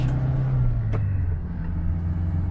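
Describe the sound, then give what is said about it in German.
The engine of a Seat 600, a small Spanish-built licensed version of the Fiat 600 made from 1957, runs steadily with a low, droning hum, loud, its pitch dipping slightly partway through. No voices, just the engine on its own. “Mit dem Seat 600 ändert sich das ab 1957.”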